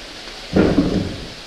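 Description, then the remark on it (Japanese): A single heavy, muffled wooden thud from a water-powered wooden pestle (karausu) pounding clay to crush it, booming briefly and fading over a steady rushing-water background from the river flowing through Onta. No voices. “今は大きな音が鳴ってますねこういう感じで土をつくことによって砕いていって土の音が変わると。”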